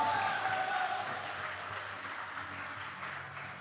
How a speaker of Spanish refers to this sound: Pero, tomamos, todo tipo de aplausos. acepto, gracias.